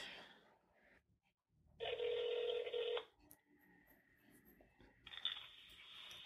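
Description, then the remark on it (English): A telephone call ringing: two loud, buzzy rings, each lasting about a second, separated by a pause, with faint line noise in between. “And now we're going to call her to see how that went.”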